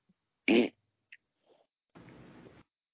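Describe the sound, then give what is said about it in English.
A short, loud fart blast, then after a brief pause a longer, quieter, raspy sputtering fart, with no one talking. “What if he coughs, sneezes, and farts?”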